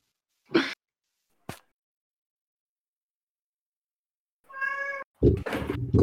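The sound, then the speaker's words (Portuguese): A cat meows: a sustained, tonal meow followed by a louder, rougher yowl, preceded by a couple of brief sharp taps, with no one talking. “Esse barulho no fundo vocês estão vendo é meu gato, tá?”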